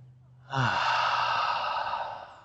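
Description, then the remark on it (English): A long, deep exhale rushes out as a person lets out a deep breath, opening with a brief voiced edge and then trailing off as a steady breathy sigh lasting about two seconds. “And so I thought we could begin our time together today by just taking a deep breath. Now let it out.”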